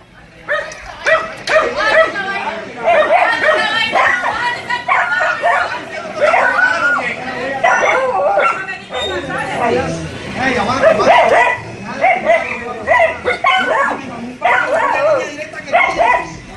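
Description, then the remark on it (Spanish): A small dog barks and yips furiously, over and over, amid a loud, chaotic crowd of overlapping shouting voices that continues without pause throughout, in the Hipódromo neighbourhood of Soledad, where residents confronted Electricaribe workers who had come to cut off a home's electricity. “Pues No se oye, no se oye muy bien porque se oye el perrito ladrando, eso sí, furioso en medio de la, de la algarabía”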